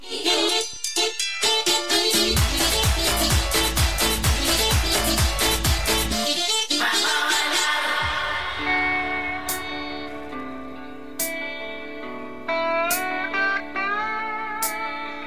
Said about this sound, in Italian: È eh, la musica di sottofondo questa mattina è abbastanza energica, eh? questo brano qui lo sentiremo tutte, tutte, le volte che finisce un brano e parlo io, così non avete solo la mia voce che non è il massimo.